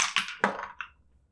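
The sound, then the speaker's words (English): Dice, rolled twice for an ability check at disadvantage, clatter down through a dice tower in a quick series of four sharp, bright knocks, with the tumbling fading out after about a second. No voices are heard. “Oh, I'm going to use my dice tower.”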